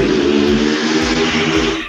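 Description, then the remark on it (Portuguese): A motorcycle roars past outside in Guarulhos, its loud, steady engine drone filling the whole moment with a throbbing low rumble before starting to fade slightly at the end. No one speaks. “foi moto. Foi o moto aqui em Guarulhos, eu desliguei tudo pra evitar o barulho.”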